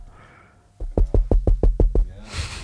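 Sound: knocking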